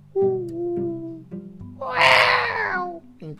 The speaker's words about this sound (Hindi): अच्छा राजा डरता डरता डरता गया बहुत बिल्कुल अंधेरा था दूर दूर तक कोई नहीं कहीं उल्लू बोल रहे